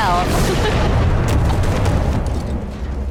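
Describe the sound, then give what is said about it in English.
A loud, deep explosion set off as a diversion rumbles continuously for a few seconds, a dense roaring boom that stays heavy in the low end before easing slightly at the end. “We can see the explosion from here.”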